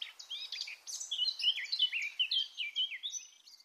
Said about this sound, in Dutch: En achteraan daar een tuinfluiter. Niet echt een grote zang, hmm. maar wel sympathiek echt zo'n picknickgeluid, vind ik. Een goed, goed achtergrondgeluid voor een zomerse picknick.